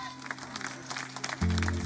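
A crowd applauds with steady, dense clapping for over a second, then a loud low sustained tone swells in underneath as the clapping continues toward the end.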